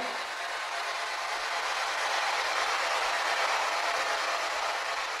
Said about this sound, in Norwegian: Ute på gulvet foran meg så har vi et leketog. Kan dere være så snill å gå bort til det?